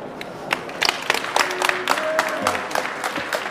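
An audience applauds with a dense spatter of many hands clapping, steady and fairly loud for a few seconds, with faint voices and a brief tonal whistle-like note mixed in.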